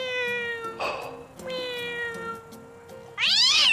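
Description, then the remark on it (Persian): A cat meows in long, drawn-out cries, two sustained falling calls followed by a sharper, louder yowl at the end. No one speaks. “گربه محل شما خیلی بهترن چی میگن گربه های شما؟”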